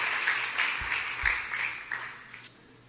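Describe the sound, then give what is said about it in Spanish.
An audience applauds Jesus together in a steady burst of many hands clapping, a dense, bright patter of claps that holds for a few seconds before fading slightly. “Dale un buen aplauso.”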